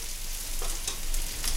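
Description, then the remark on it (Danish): Many Danish meatballs (frikadeller) sizzling steadily in a frying pan as a woman fries them in a kitchen in Billund, a dense crackling hiss with a few brief louder pops, continuous with no voices. “Der står en dame i et køkken i Bilund og steger frikadeller. Mange frikadeller.”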